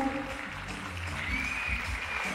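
A crowd applauds steadily, a dense wash of clapping that holds an even level throughout, with a low hum underneath and a faint thin whistle riding over it.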